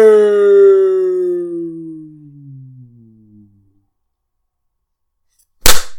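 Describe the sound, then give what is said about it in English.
A cartoon falling whistle slides downward for a few seconds and fades, then after a short silence a loud, abrupt splat hits at the end. “It's like some wily e. coyote shit right there.”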